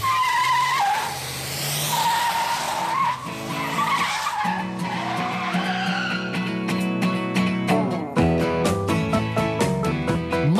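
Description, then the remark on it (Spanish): A car engine revs hard while tires squeal and skid in long, loud screeches, followed by a flurry of sharp rhythmic bursts, with no voices. “te he traído un petróleo, vamos, de puta madre, este, con este tú lo pones en el coche y esto, vamos, sueltan las bielas que mete miedo.”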